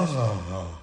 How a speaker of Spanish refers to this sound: es un bostezo. Acabas de bostezar. Sí, acabo de bostezar, sí.